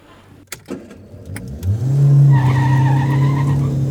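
A few sharp clicks, then a car engine roars up and the car pulls away with a sustained, tonal tire squeal, loud, with no one talking.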